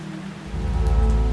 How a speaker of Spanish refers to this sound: venía empapado a pesar de la ligereza de la lluvia.